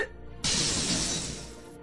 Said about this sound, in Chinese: 你你知道发生什么事儿了吗？那一栋草房子居然全倒了，草堆的正中央躺着一只小猪，它死了。